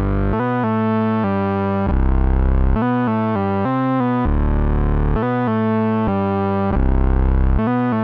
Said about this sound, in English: But then sitting there, there's like underneath it, like it just is a beast. There's just that Moog, that massive fat keyboard bass.